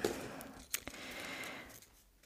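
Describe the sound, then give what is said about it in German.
Soft rustling of paper question slips being stirred around in a small basket as one is picked at random, a continuous dry shuffle with a couple of sharper crinkles partway through, fading out at the end. “ich würde jetzt direkt loslegen und aus dem Körbchen hier eine Frage auswählen. Ich bin gespannt. Einfach Zufallsprinzip. Raschel, raschel.”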